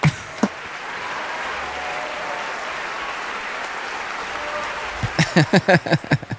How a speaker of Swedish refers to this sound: Där får vi klippa in en stor applåd